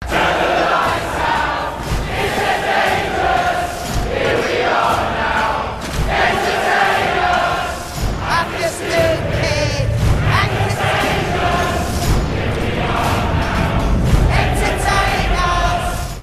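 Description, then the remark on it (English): A large crowd of mine workers in Neverland, in a film scene, sings a 90s grunge rock song together, loud and steady from start to finish, with a dense, full chorus sound and heavier low-end backing in the second half. “So in Neverland, the first thing they see is a crowd of workers at a mine singing bafflingly”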